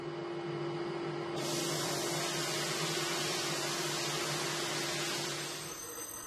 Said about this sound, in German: Mit dem rundum beklebten Glas geht es dann weiter zum Sandstrahlen.